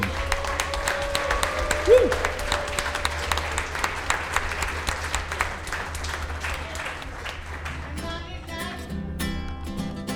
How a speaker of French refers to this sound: J'aimerais ça que vous vous donniez une grande main d'applaudissements le club de curling de Noranda. Attitude curling.